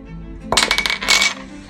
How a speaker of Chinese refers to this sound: 啊，我在我在转笔，sorry。